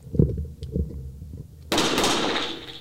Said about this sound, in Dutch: wederom twee schoten.